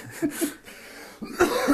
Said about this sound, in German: kann ich jetzt eben husten. Ja, du kannst gerade husten.